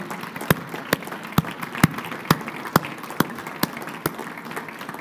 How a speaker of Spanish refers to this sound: Gloria al Señor. Él nos acercó su reino. Dale un fuerte aplauso al Señor de Dios de toda misericordia.